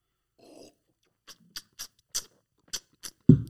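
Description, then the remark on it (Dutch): A short series of quiet slurping sips after a toast, about six in an uneven rhythm, ending with a louder thump, as if a glass is set down. No one speaks. “Gaan we daar proosten? Yes. Proost, …. Yes. Een slurp, hè?”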